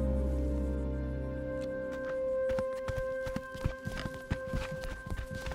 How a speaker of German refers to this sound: Die beiden sehen sich kurz an. Dann rennen sie los. Sie laufen aus der Gruft und in den Turm hinauf.